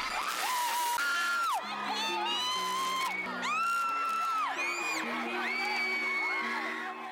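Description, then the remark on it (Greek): A large crowd of fans screams and cheers continuously, with high-pitched whoops and shrieks rising and falling over a dense roar of voices, loud throughout. “Η φάση το 13 ήταν γεμάτη ουρλιαχτά”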